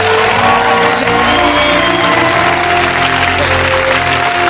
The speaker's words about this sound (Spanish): La abuela tenía razón. Un aplauso para ella.